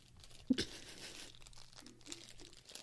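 A Sour Patch Kids watermelon candy package from 7-Eleven crinkles and tears as someone struggles to open it, with two sharp rips near the start followed by a steady, moderately loud rustle of plastic.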